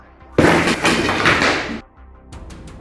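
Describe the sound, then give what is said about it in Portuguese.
A wooden house door is violently smashed apart, its pieces hurled into the house: a sudden loud crash bursts into over a second of splintering, cracking wood, then fades to a few quieter scattered knocks of falling debris. “a última coisa que viu foi quando os pedaços de madeira da porta totalmente destroçadas, foram arremessados com extraordinária violência para dentro da casa”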